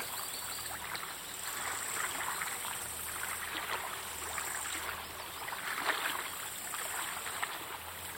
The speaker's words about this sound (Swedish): Mellan björkarna rinner en bäck.